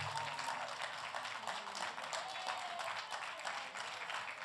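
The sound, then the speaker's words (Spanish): An audience applauds the Heavenly Father together, a dense and steady wash of many hands clapping that holds at an even, fairly loud level throughout without breaking into distinct individual claps. “Denle aplauso al Padre Celestial.”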